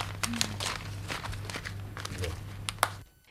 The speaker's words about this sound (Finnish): Näin siinä taas kuultiin kassan vanhan ajan kassan ääniä ja, ja, mm. ja rahan kilinä